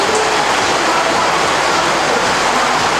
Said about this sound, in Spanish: Eh, bendecido aquí con lluvia en Poloros, me dicen. Poloros está lloviendo, señores. Me mandan un videito. Por cierto, lo voy a compartir. Lluvias en Poloros, señores.